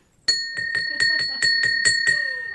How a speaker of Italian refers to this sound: una campana che mi è piaciuta ragazzi, perché siamo nel business di svegliarsi.